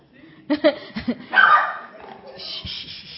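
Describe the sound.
A dog named Zuli growls in short, sharp bursts that run into a longer rough snarl, followed by a quieter, noisy stretch with a faint voice in the background.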